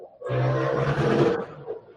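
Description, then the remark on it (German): A motorcycle engine roars loudly for just over a second, a rough, buzzing low drone with a bright upper rasp, swelling in and then fading quickly. No one speaks. “Boah, da kommt aber Motorrad-Sound.”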